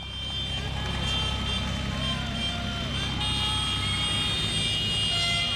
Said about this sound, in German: Einige Dutzend Traktoren hintereinander fahren im Schritttempo Richtung Innenstadt. Beim Landhausplatz in Bozen treffen sich unzufriedene Bäuerinnen und Bauern aus dem ganzen Land zum Protest.